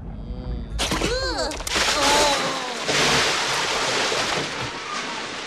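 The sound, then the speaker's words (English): A brief burst of high, warbling electronic-like chirps gives way to a loud, steady roar of water gushing in and flooding an entire basement, continuing strongly to the end; from the film Coneheads, when Laraine Newman's character, about to give birth, has her water break. “the water breaks and it floods the entire basement that they live in”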